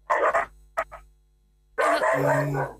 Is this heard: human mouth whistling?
no